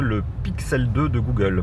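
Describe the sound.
Steady low rumble of a car engine heard from inside the vehicle, continuous beneath a man speaking close to the microphone.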